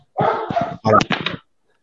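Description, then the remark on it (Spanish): A dog kept inside the house barks and yelps in two quick bursts of rough, harmonic calls, moderately loud and slightly muffled, then falls silent, with no one talking. “los perros, ahora. es que ahora los, tengo acá adentro, güey.”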